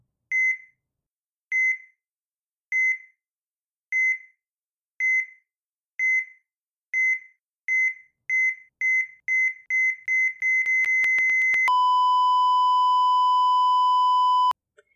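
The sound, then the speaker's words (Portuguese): Electronic heart monitor beeps of the kind heard in films, evenly spaced at first, then quickening until they run together into a loud, continuous flatline tone that holds for a few seconds before cutting off. “Ora, se cada pi corresponde ao coração a bater, ao haverem cada vez mais pis, seria sinal que o coração estava a bater cada vez mais rápido.”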